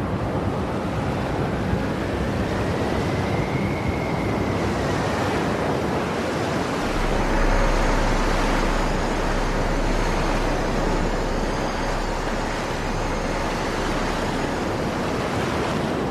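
A loud, continuous roar of rushing water and surging waves as the sea parts after Moses strikes it with his staff, swelling heavier partway through, with a faint rising whistle early on and no voices.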